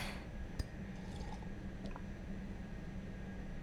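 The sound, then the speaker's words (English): Water trickles quietly and steadily into a glass, with a light clink just before the pour settles into a soft, continuous gurgle. No one speaks. “Here's some water.”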